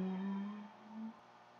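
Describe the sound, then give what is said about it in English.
A soft, steady hum from a single voice in a breathing exercise, holding one low pitch for about a second before easing off and briefly swelling again, with no words spoken. “Hum, sigh.”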